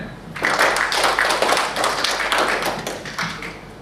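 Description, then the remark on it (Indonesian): A crowd applauds steadily, many hands clapping at once in a dense, crackling wash of sound that stays loud and even for a few seconds, with no voices on top. “korbannya tepuk tangan kita”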